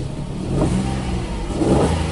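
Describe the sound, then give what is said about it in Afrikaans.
The small 1000cc three-cylinder engine of an iGo car revs with a throaty, buzzing growl, rising in two surges over a couple of seconds, loud and steady with no talking. The engine makes 51 kW and 95 Nm at 4300 rpm. “wat hom ook karakter gee is die lekker brul van die 3-silinder.”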